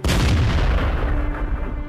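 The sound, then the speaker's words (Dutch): Heavy cannon fire rumbles loudly and continuously, a dense barrage of deep booms and blasts rolling over one another with a thick low-end roar and no voices. “Het lawaai dat die kanonade veroorzaakt is voor zijn gevoelige oren werkelijk ondraaglijk.”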